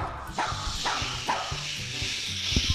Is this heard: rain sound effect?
yes